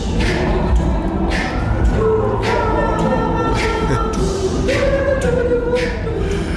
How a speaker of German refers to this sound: Geschlossen war der Raum, die Plattform hingegen, als ein Chor …-Songs performte.